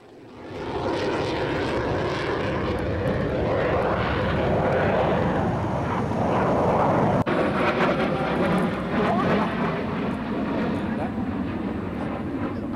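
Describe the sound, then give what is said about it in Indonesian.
Four Indonesian Air Force F-16 fighter jets roar overhead during a military exercise bombing run on the south coast of Lumajang, East Java, in a loud, sustained rumble that swells in within the first second and holds steady, with a slight shift in the engine noise midway through. “empat pesawat tempur TNI AU jenis F-16 melakukan pengeboman di pesisir pantai selatan Lumajang, Jawa Timur.”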